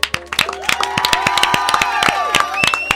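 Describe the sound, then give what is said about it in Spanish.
A crowd on the show Ayúdame Loco claps steadily for a guest with dense, irregular hand claps while voices cheer and whoop over it, some high shouts rising above the loud, sustained applause. “a quien, como no sabemos si es la última vez, lo vamos a aplaudir por las dudas.”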